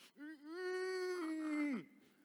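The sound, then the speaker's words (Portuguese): An adult voice imitates a small child crying: one drawn-out, steady wail lasting over a second, ending in a sharp downward drop, fairly loud. “Aí ela chorava, fazia assim, ó.”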